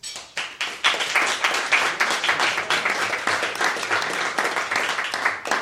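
Enthusiastic applause from a crowd, dense overlapping claps rising quickly and holding steady at a loud level for several seconds, with no one speaking.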